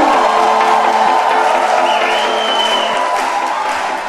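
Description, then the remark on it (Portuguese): An audience, urged by a show host to shout again, shouts and cheers loudly and continuously, a dense roar of many voices with whoops and clapping mixed in, holding steady for the full four seconds before easing slightly at the end. “Grita de novo!”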